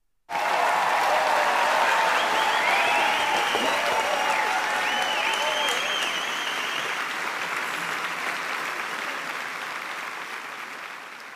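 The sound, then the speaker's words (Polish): Sustained applause from a sizable crowd, inserted during editing of a recording, begins abruptly and continues steadily for about eleven seconds, dense and loud at first, then gradually thinning slightly toward the end. “Powinieneś na... teraz tutaj przy montowaniu wstawić yy, brawa.”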